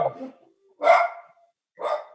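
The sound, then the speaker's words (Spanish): A dog named Sarita barks in three sharp, separate bursts spaced about a second apart, loud, with a short lower sound before the first bark, looking toward the street during a radio recording; no talking. “Como verán, acá está ladrando la querida socia Sarita, que no sé por qué está ladrando.”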